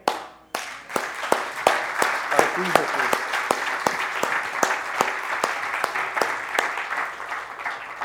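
A crowd raising their hands applauds steadily for several seconds, a dense wash of many hands clapping with sharper individual claps standing out, holding at a fairly even loudness throughout.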